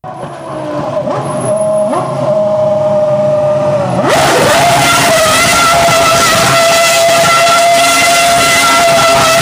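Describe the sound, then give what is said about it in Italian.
A high-pitched Formula 1 race car engine screams loudly, a thin sustained whine that swells abruptly partway through into a full, harsh roar that holds steady to the end, with no voices. “Andiamo alla Formula 1.”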